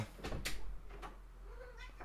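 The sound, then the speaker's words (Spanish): A female cat gives a soft, drawn-out, faint meow amid a few sharp knocks and rustles like something bumping a cupboard or door. “Se viene también la gata a despedir.”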